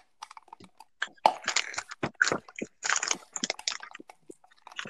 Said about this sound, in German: Äh, ich presse gerade eine Zitrone aus, das ist nicht so laut.